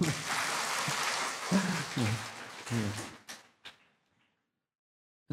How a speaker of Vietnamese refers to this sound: cho chàng pháo tay đúng không